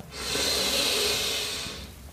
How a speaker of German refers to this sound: Wir nehmen einen tiefen Atemzug und atmen ein.